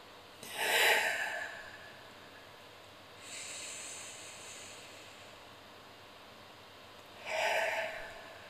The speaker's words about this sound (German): Und konzentriere dich darauf, bewusst mal in den Bauch einzuatmen. Und dann, indem du zum Beispiel die Hand auch auf den Bauch legst, ja. Und dann einfach mal spürst, wie er sich beim Atmen ausdehnt und auch wieder zusammenzieht.